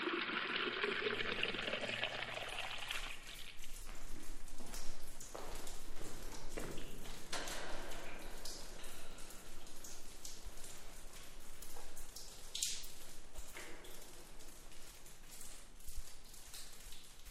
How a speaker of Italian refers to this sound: Ma è quasi sempre una fontana che favorisce le intese, mentre una civettuola brocca d'acqua tarda a riempirsi.